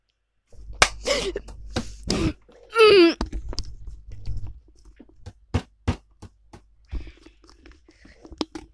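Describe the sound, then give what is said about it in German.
Sharp clicks of computer keyboard keys being pressed in short, irregular bursts as someone names a new world and searches for the hashtag key, with a brief wavering vocal sound early on and scattered single keystrokes later. “Ich finde Hashtag auf dieser Tastatur nicht.”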